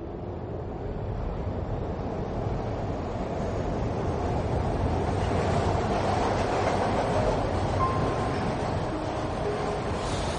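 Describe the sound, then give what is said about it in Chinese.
A train rolls along the rails with a steady, loud rumbling roar that holds for the whole stretch, and brief thin squealing tones rise above it near the end. No one speaks. “登上火车时，天是橙黄色的”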